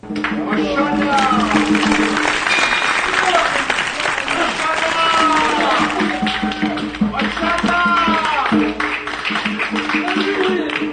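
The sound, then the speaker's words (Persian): Steady, loud audience applause fills the whole stretch, a dense crackle of many hands clapping, while a man keeps talking over it. “بس دیگه اینقدر تشویقش نکنید پر رو میشه”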